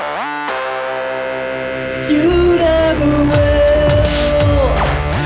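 A rap single starts with a sustained, processed synth intro, then a heavy distorted beat with deep bass kicks in after about two seconds, loud and upfront, with no vocals yet.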